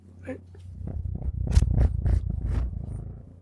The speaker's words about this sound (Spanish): está ronroneando.